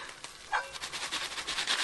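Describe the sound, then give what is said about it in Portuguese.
Popcorn popping as someone makes it, in a rapid, irregular flurry of small sharp pops, building and getting denser as it goes, fairly quiet, with no voices. “Você tá fazendo pipoca?”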